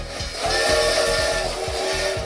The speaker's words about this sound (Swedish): Ett tåg som närmar sig bakifrån kanske.